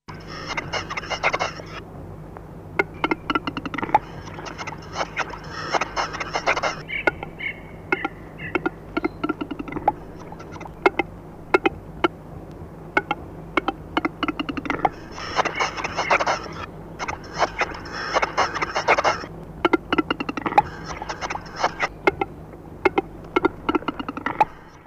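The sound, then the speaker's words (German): A male game bird's courtship display: repeated dry, knocking clicks followed by stretches of scratchy, hissing grinding notes, cycling twice over a quiet outdoor background with no one talking. “Sie beginnt oft in den frühen Morgenstunden noch auf dem Baum und setzt sich dann später auf dem Boden fort.”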